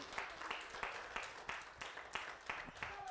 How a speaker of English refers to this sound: That would be good if you're clapping for me, but for those who put, he who put life and breath in your body, can you give everything you got and give God a praise? Take the roof off of this place.